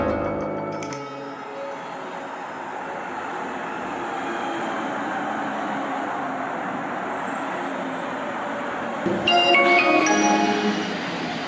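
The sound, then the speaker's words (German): An ICE high-speed train runs steadily on rails, a continuous rumble with faint high whine, marked by brief metallic clatters near the start and again near the end. No one speaks. “Liebe Fahrgäste, aufgrund eines Radschadens am Zug kann der ICE 123 von Zürich nach Berlin ab Kurzweiler nur noch mit 5 km pro Stunde fahren.”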